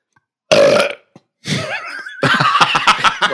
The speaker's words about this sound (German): Einfach äh, rülpsen und einfach danach lachen.